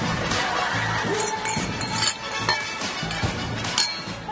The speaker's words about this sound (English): And that is the sound of champagne glasses toasting our 400th episode in Essen, Germany. Cheers!